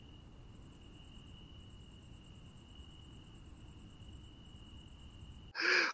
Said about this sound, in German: Ja, so ein Grillenzirpen, das kommt auch richtig gut.